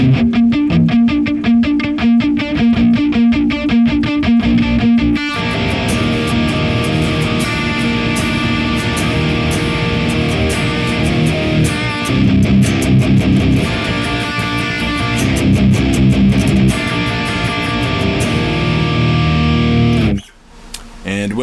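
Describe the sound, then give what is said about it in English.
Loud, heavily distorted electric guitar through a stereo Neural DSP Archetype Nolly amp simulator with the Mick Buzz Nectar Giant impulse response opens with a tight, rhythmic chugging riff, then swells into dense, sustained chords, cutting off briefly near the end. No talking. “And then when we run a stereo instance of the Mick Buzz Nectar Giant impulse response through our neural DSP archetype Nolly, it sounds like this.”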